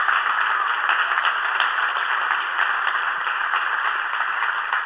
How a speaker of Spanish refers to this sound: Yo quiero un aplauso para estas mujeres.